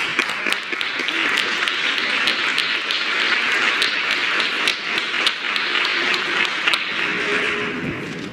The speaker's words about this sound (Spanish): Se quisieron venir todos. Ah. Son varios. Todos son representantes de la comisión. Un aplauso.